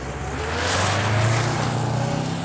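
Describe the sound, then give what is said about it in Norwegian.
A station wagon with Lithuanian number plates roars off with its wheels spinning as a man drives it away from beside a warehouse building, the engine revving hard and loud under a wash of tyre and road noise, sustained throughout. “Han gikk mot en bil med litauiske nummerskilt, satte seg inn, og så spant den hissig av sted.”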